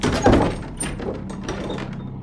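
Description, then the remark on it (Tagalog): A gate swings open with a loud, drawn-out creak as it is pulled open after its padlock is unlocked, starting with a heavy thunk and grinding on for about two seconds with thin, squealing high tones over it. “Nang hinila ko pabukas ang tarangkahan, lumangit-ngit ito ng malakas na siguradong maririnig ng sino mang gising.”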